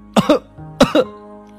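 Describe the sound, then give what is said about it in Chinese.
Harsh, choking coughs from a character choking on sand and dust kicked up by chicks taking dust baths, in two quick pairs, each pair a sharp double hack, with a short pause between them. They are loud, and no one speaks. “卢茨佩罗被小鸡们扬起的沙土呛得直咳嗽”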